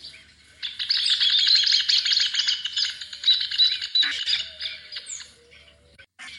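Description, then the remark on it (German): A rufous hornero calls in a loud, rapid, high-pitched chattering trill of many quick repeated notes, sustained for several seconds before trailing off into a few scattered chirps. No one speaks. “was hast du heute über den Töpfervogel gelernt?”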